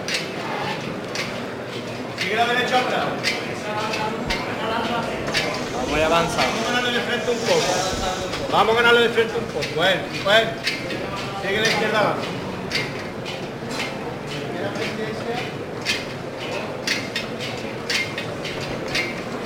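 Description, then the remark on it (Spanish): Metal acorn ornaments on a burgundy palio with embroidered figures, carrying the Virgen Niña in Glory accompanied by Saint Anne in a procession, clink and jangle in a steady, irregular stream of bright, rapid taps, riding over a constant murmur of crowd voices. “Y en primer término el sonido de las bellotas, de este palio de figura, color burdeos, que nos muestra a la Virgen Niña en la Gloria, acompañada de Santa Ana”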